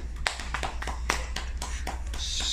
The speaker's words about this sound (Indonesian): Tepuk tangan dulu dong.